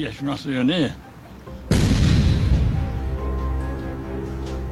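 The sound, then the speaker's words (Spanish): After a short stretch of a voice talking, the main guns of the battleship Yamato fire in one sudden, massive blast that rolls into a long, deep rumbling decay. “recuerda su potente armamento. El sonido era muy fuerte. Era como si una oleada de rayos golpeara la embarcación.”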